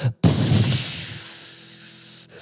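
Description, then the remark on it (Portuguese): A loud hiss of steam as a bowl of water is tipped onto a hot stone in a Turkish bath. It bursts in suddenly after a short silence, then softens gradually over about two seconds, with no talking. “e derrubam uma, uma, uma malga de água numa pedra e a pedra faz.”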